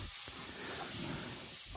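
Steady, fairly quiet sizzling of asparagus pieces frying in a pan as they are stirred and begin to brown, a continuous crackling hiss that holds evenly throughout with no one speaking.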